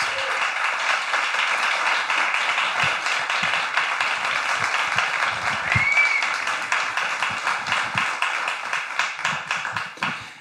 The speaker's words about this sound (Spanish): Y por eso recibe este maravilloso aplauso el gran Isaías Lafuente.